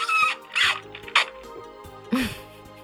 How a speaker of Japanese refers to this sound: でもさっきから私がコメント読んでる最中カラカラカランカランカランって聞こえとったで最近ねできるだけ冷たいもの飲みたいなと思ったら、このアルミのタンブラーがいいんですよね、うん、アルミのタンブラーねこう音がうるさいんですよほら